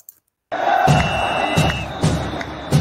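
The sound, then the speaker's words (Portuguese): After a brief silence, the intro jingle of Live 192 on the Zona Rubro Negro channel kicks in loud, with steady punchy beats roughly every half second and sustained tones layered over a dense roar of crowd cheering. “Portanto, enquanto a vinheta rola, pega sua cadeira, pega sua água e vem que vem, porque está começando mais uma live zona aqui no canal Zona Rubro Negro.”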